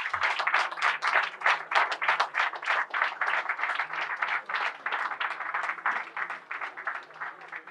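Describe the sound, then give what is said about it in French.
An audience applauds three guests as they are thanked, a dense wash of many hands clapping at a fairly even loudness throughout, with faint voices under it. “Euh, il faut les applaudir.”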